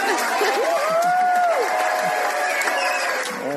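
Wedding guests applaud steadily for a few seconds, the dense clapping mixed with excited cheers and whoops rising and falling over the top, loud throughout.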